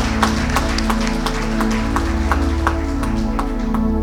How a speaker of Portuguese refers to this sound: Você pode dar uma linda salva de palmas para Jesus mais uma vez.